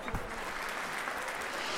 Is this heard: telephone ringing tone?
no